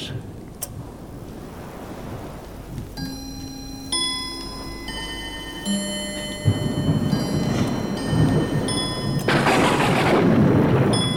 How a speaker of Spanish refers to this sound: La tormenta sigue con menor intensidad.